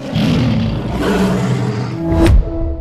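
A deep, growling lion roar in a Peugeot car advertisement that rumbles steadily for nearly three seconds, loud and full, with a sharp swell near the end before it drops away. No voices are heard.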